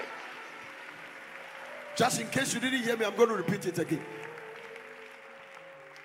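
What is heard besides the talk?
audience clapping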